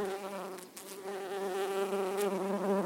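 A bee buzzes steadily, a continuous droning hum with a slight wavering in pitch and no voices over it.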